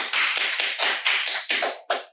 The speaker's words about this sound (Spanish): empezando con se graduó ayer. Aplausos